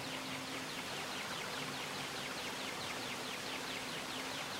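A steady, dense wash of rushing water from a waterfall fills the whole stretch with constant hiss and no pauses. Faint repeating chirps sit high in the background.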